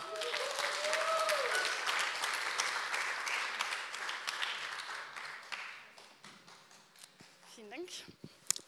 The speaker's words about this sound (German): Deswegen kommt noch gerne nach vorne und gebt ihnen noch einfach mal einen Applaus.